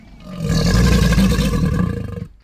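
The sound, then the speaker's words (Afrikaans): A single deep, rumbling roar of a crocodile on a lawn in a garden, loud, swelling quickly and holding steady for about two seconds before cutting off. No one speaks. “tot haar verbasing sien sy 'n eislike krokodil op 'n grasperk.”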